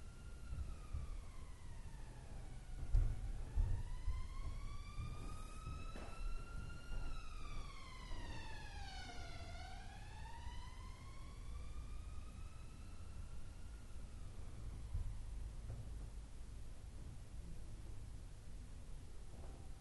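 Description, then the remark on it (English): An emergency vehicle siren wails in slow rising and falling sweeps, loud at first then fading as it passes, over a steady low rumble of traffic. “Notice the effect of the siren.”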